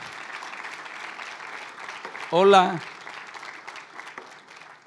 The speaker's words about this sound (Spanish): Y si ya lo entendiste, dale un aplauso al Señor y dile, ay papá.